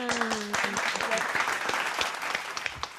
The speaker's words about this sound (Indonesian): tangan lagi, tepuk tangan.